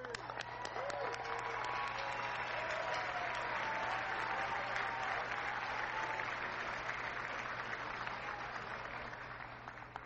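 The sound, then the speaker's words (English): Sustained audience applause at the White House Correspondents' Dinner welcoming host Larry Wilmore, a dense steady wash of many hands clapping at a loud, even level for the whole stretch, with scattered cheers and whoops rising above it. “that applause going all the way too.”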